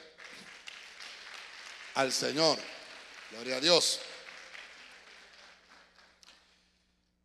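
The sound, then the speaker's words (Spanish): A church audience claps steadily for several seconds, a dense wash of applause that fades out near the end, while a voice calls out over it twice. “La iglesia le da palmas fuertes”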